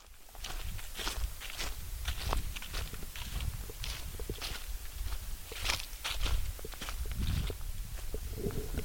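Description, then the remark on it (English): Steady footsteps crunch through dry leaves and twigs on a gravel path in thick forest, in a wilderness near the Hickory Ridge Fire Tower in Indiana, a continuous rustle with regular treads. No one speaks. “We can hear the sound of leaves crunching beneath our feet.”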